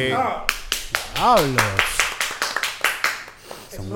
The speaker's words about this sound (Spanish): Cabrón, contraten gente aunque sea para que aplaudan. Pues aplaude